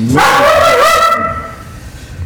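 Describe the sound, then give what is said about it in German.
A dog gives a single loud, drawn-out bark lasting about a second before fading into quiet. No one speaks. “das war nicht der Christian, das war der Hund.”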